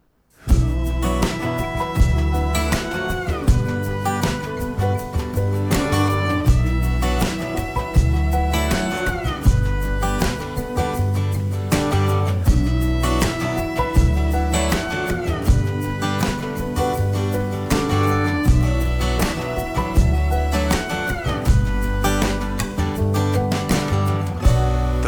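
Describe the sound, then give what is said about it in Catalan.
A full-band song by a musician and singer, played at the start of a radio interview with him, plays loudly and steadily throughout, his voice riding over a driving beat, deep bass and bright layered instruments, with no talking over it. “és un dels seus temes, de, de, del seu disc, que eh,”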